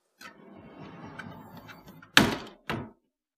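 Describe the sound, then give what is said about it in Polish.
The door of a storage room in a temple cellar shuts with a sharp, loud thunk followed quickly by a second solid knock, after a low rustling, shuffling movement; no one speaks. “I tam drzwi jednego ze schowków zamyka właśnie Iwon.”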